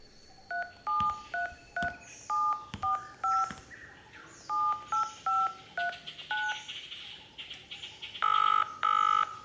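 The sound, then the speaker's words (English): A rapid series of cell phone keypad dialing beeps, short dual-tone presses in quick irregular bursts, followed by a couple of longer tones near the end, clear with no talking. “Bingo! Cell phone.”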